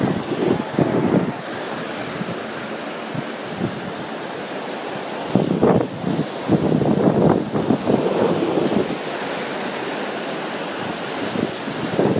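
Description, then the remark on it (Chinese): Ocean waves wash onto a shore in a steady, loud roar, with a few stronger surges swelling and breaking partway through. Wind buffets the microphone throughout, and no one speaks. “这是我在大海边听海浪的声音了吗？”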